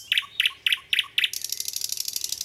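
A nightingale sings: four crisp, evenly spaced whistled notes, then a fast, buzzing trill of rapid repeated pulses.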